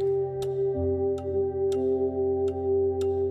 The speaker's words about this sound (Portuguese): são os ponteiros do relógio, sempre tão certinhos, nunca falham. Tic-tac, tic-tac. Consegues ouvi-los? Tic-tac.